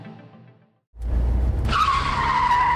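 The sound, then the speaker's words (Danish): Car tires skid loudly after a brief pause: a low rumbling rush gives way to a sustained high-pitched screech that holds steady to the end, prominent with no talking. “Trækker din bil til siden?”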